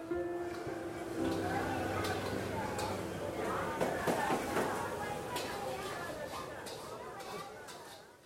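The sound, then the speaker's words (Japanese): A recording of the busy crowd at Ningxia Night Market, with many overlapping voices chattering at a steady level, scattered clinks and footsteps, and a dense hum of activity throughout. “臨場感を出すために寧夏夜市の収録音をBGMとして流しています。”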